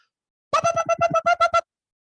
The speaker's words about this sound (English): that is our simpatico alert. We sound that alarm every time there's agreement on something significant